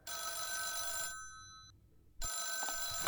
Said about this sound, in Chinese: 第四百五十章，钟离和于西正在给孔玉德做汇报，突然电话响了。